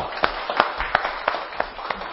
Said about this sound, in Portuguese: Uma salva de palmas para Jaqueline.